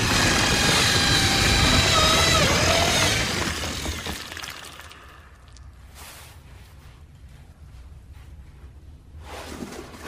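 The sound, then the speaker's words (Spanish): A man bores a hole in a wall with a power drill: a loud, grinding whine that shifts in pitch for about three seconds, then dies away, followed by a couple of short, faint bursts. “Un hombre hace un agujero en la pared con un taladro.”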